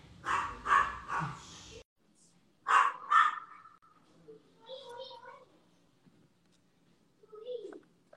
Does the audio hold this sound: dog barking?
yes